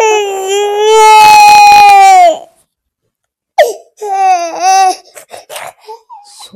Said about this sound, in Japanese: 赤ちゃんがすごい、いいタイミングで赤ちゃんが泣きましたけど。